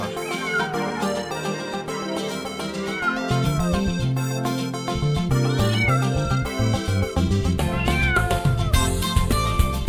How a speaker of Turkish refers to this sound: Kedicim kedicim gel seveyim seni ben Miyav miyav diyerek yaklaşıver bana sen